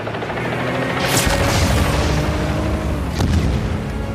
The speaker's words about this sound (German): Dann schlugen hinter ihm die Bomben ein, die Winston abwarf.